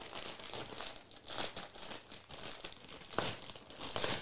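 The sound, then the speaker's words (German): Steady crinkling and rustling of stiff glitter wrapping paper as a gift is unwrapped, with sharper crackling bursts every second or so and no voices. “Es ist aber sehr schön eingepackt in dem ich hab, Glitzerpapier.”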